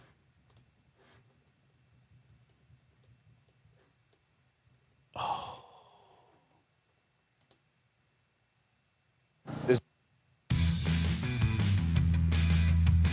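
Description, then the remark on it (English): A few sharp, isolated button clicks over a low hum, alongside a breathy sigh, before loud sound abruptly starts playing at the end. “You start clicking buttons”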